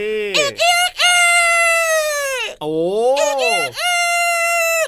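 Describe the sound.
A person loudly imitates a male rooster's crow in an animal-sound guessing game for children, drawing out long, strained vocal cries in a few rising and falling bursts.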